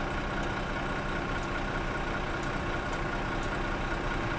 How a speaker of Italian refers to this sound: E rieccoci con i campanacci delle mucche in sottofondo e l'autostrada dalla piazzola svizzera dove sto registrando